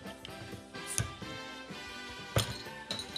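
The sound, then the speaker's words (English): A bottle of wheat beer, 5.1% alcohol by volume, is handled and opened, with two sharp glassy clinks and a bright ringing tone over soft rustling. No one speaks. “So we will open this baby up and away we go.”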